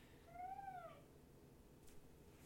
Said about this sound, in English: Even our cat likes it. Look at him. Look at Nuggins. Eating his chili.